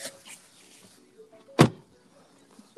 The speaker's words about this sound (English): Bro, we literally just got in the car. I don't know if y'all heard the door.